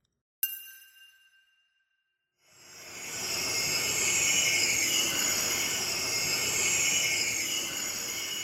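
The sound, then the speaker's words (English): A hydrogen sulfide gas leak in the basement of a former bar in Wheatley, Ontario hisses loudly and steadily, a broad rushing noise that continues for several seconds after a short pause. A single fading metallic ding sounds at the start. Nobody speaks. “That's the sound of a gas leak in the basement of a former bar in Wheatley, Ontario.”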